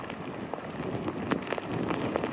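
Heavy rain from Tropical Storm Elsa pours down in a dense, steady hiss on St. Simon's Island off the Georgia coast, mixed with gusting wind and scattered sharp splatters. The whole passage stays fairly loud, with no voices.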